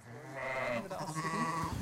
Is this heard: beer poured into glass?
no